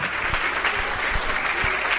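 A crowd applauds the Lord steadily, a dense, continuous wash of many hands clapping at a fairly loud, even level with no voices standing out.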